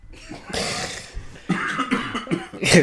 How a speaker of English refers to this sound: My, my, coughing up my lung. Oh man! But but but your lung's still there, no? Cough. i coughing.